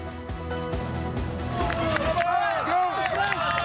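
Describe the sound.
A crowd shouts encouragement as a tattooed strongman pulls an 81-tonne train more than ten metres along railway tracks at Machu Picchu, Peru. It is a dense, steady wash of overlapping voices, with several loud, drawn-out calls rising and falling over the din in the second half.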